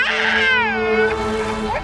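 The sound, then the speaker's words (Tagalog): A child inside a bedroom with a locked door wails loudly in one long, high, sustained cry whose pitch wavers and bends, with a steady low hum running underneath. “Mabilis kaming tumakbo papunta sa silid namin pero nakakandado ang pinto Pumalahaw pa ng mas malakas ang aming anak.”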